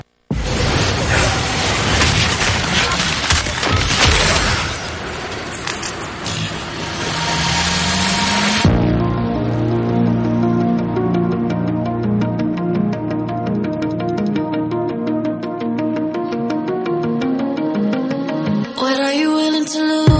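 The 2019 esports world championship anthem opens with a dense, booming, noisy surge, then shifts into sustained layered tonal chords and a steady pulsing beat, loud and without vocals or talk.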